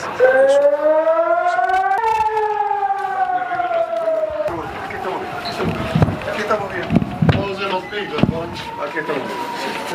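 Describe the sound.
A rocket air-raid warning siren, sounding for incoming Hamas rockets at Barzilai Hospital in Ashkelon, Israel, wails loudly and steadily, its tone slowly sliding, while wind buffets the microphone and a few sharp knocks and voices break through later.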